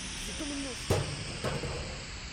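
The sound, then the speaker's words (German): Two sharp, dull knocks of a table tennis paddle striking a person's head land about half a second apart over a steady background hiss; the first is louder. “Das war der Tischtennisschläger. Du hast den Schläger an den Kopf gekriegt.”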